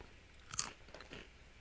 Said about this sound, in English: as I'm eating goldfish. Oh, they're stale. Still good though, but just a little less good.